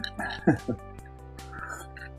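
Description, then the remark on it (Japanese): Two short, wet slurping sounds, one right after the other, as someone slurps rich, thick crab miso, like sucking it off a shell, then a quiet stretch with faint background hum. “カ ニ味噌をすする音が入っとると思うけど。”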